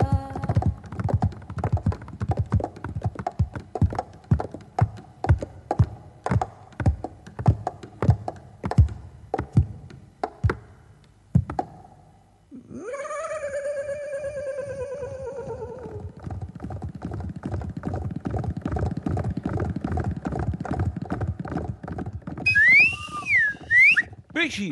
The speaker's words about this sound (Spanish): pero, eso qué hermoso estar ahora entre el galope de los caballos!